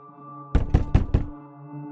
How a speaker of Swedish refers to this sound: När polisen knackar dörr och Aftonbladet och GT kommer för att göra sina första reportage möter de grannar i chock.